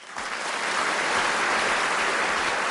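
A burst of audience applause starts abruptly and holds steady, a dense crackling wash of many hands clapping at a consistent loudness with no voices over it, welcoming a guest speaker who is a producer at Riot Games.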